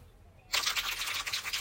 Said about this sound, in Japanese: 拍手いただきました。